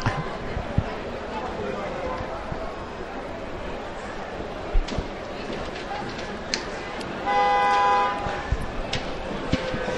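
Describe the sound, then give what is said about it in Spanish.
A single loud car horn blares for nearly a second near the end, from impatient drivers held up as a religious brotherhood procession stops in the street, standing out over a steady background of street noise and crowd murmur. “De nuevo se detienen ante, ante nosotros y los coches que se empiezan a desesperar.”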